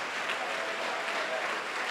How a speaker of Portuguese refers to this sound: E eu quero que você dê para esta palavra uma grande salva de palmas